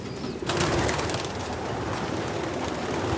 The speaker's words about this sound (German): Guck mal, der. Die Taube sind ein bisschen groß. Ja. Ja, das ist besser.